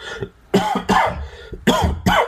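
Four harsh coughs come in two quick pairs with a short pause between them, loud and raspy, with no talking around them.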